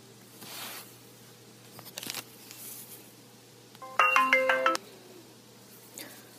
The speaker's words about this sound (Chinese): 好，我们刚才突然断了一下，是不是你那边有电话进来？ 呃对，刚刚刚刚刚 没事 我我太太给我打电话了。